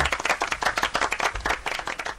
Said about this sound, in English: Round of applause for me.